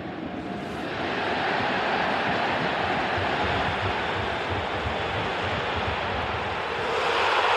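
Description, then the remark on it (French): A huge football crowd at the Vélodrome stadium roars after a goal, a dense, continuous wall of cheering that swells within the first second and stays loud throughout, with no commentary or voices speaking over it. “C'est un son d'un but à toi. Et il n'y a pas de commentaire et on va voir si tu arrives à le reconnaître.”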